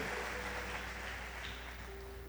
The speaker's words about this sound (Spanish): Pero también un aplauso, claro, lo merece.